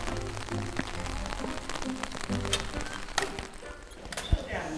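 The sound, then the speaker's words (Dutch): Steady rain falls on a hard surface outdoors while heading toward Museum Boerhaven in Leiden, a dense continuous patter with a few sharper drips standing out, over a low background rumble. “Het regent.”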